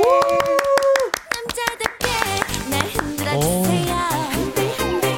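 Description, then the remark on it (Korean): Sharp, evenly spaced hand claps in a steady rhythm for about two seconds over sustained musical tones, followed by an upbeat trot song with a strong pulsing beat. “자, 손머리를 박수 치시면서 함께 하실게요.”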